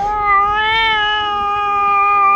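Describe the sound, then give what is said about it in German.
A tomcat lets out one long, drawn-out meow, loud, its tone rising slightly before holding steady for a couple of seconds with no one speaking. “Aber nach dem Oktoberfest, da kommt ja dann auch der Kater. Ne, der Kater oh, klingt, der ja. klingt in der Regel so.”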